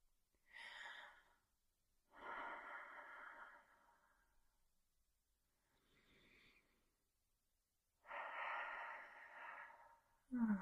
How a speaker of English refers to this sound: Good. Just breathe in and out. That's it.